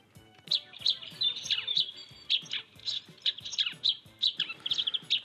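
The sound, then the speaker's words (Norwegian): Busy, repeated chirping of a Eurasian tree sparrow, played from Yngve's bird book with sound, sharp tweets coming in quick irregular bursts, clear with no voices. “Er det pilfink, ja?”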